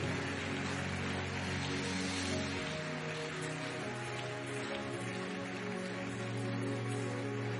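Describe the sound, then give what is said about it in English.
A large church audience at Koinonia claps steadily and loudly for several seconds, honoring counselors as they go, with many voices shouting and cheering together through the dense, continuous wash of applause. “Koinonia, give them a big, big God bless you.”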